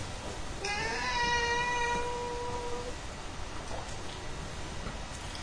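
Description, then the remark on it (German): A single drawn-out cat meow, loud, with a bright harmonic wail that slides slightly and fades after about two seconds, followed by quiet background noise. “Wir rauchen nicht nur Zigarren, sondern quälen auch Katzen.”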